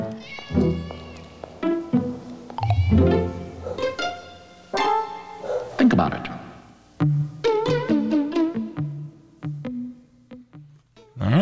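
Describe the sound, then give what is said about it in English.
A little alley cat meows over and over, loud, a steady run of plaintive, drawn-out cries with brief pauses between them and a few shorter, rising calls near the end. “so I wonder if um, that cat, if like Ruben would adopt it because it came up out of nowhere and kind of little alley cat.”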